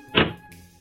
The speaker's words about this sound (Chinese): 然后啊，他砰的一声关上了门。